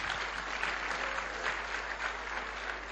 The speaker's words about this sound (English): Any mothers who got young ones, just put your hand at them away. God, let's give them a great big clap today, eh? the little ones.